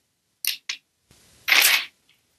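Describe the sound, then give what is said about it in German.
Paper pages being flipped: two quick, crisp rustles, a short pause, then a longer and louder swishing page turn, with no voices. “man hört mich blättern.”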